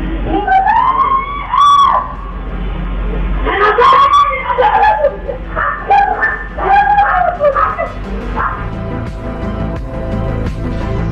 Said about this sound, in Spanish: Y a la madre del joven muerto a los gritos, me mataron a mi hijo, me mataron a mi hijo. Escuchemos el audio terrible.